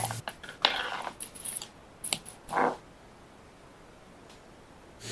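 Light metallic rattling, like loose chains shifting, comes in scattered bursts, followed by a sharper, louder click-like clank before things fall quiet, as an approaching ship draws near.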